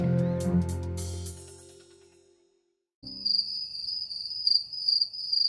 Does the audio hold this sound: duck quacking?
no